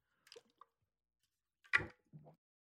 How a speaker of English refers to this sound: I'm drinking out of my half gallon jug. Hold on.